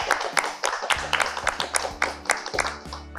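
A burst of steady clapping from a group, dense, running for a few seconds with sharper accented claps and a low sustained musical tone underneath, as applause to close the session.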